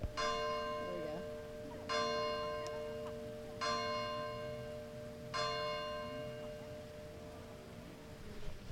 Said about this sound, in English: Uh, 8 a.m. if you can hear the church bell. Should I turn toward it?